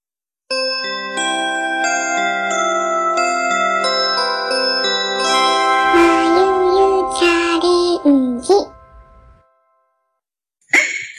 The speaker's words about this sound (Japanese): じゃあ、ゃあここで、あれ入れましょうかね。いつものチャイムをね。